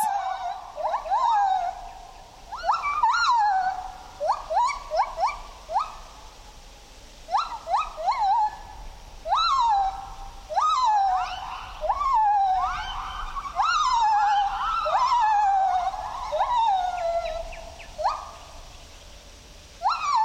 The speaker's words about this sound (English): This is a white handed gibbon living in Thailand's Khao Yai National Park.